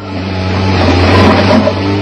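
A truck engine revs loudly as the driver tries to free the truck from mud, a steady low droning roar that swells slightly as it strains, with no voices over it.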